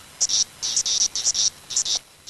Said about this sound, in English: Now here is species number two. Magicicada septendecula is making like It's kind of irregular.